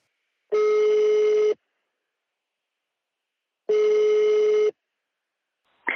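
Two steady ringback tones sound on an outgoing phone call to an infection control office, each about a second long with a pause of roughly two seconds between, heard clearly with no voices.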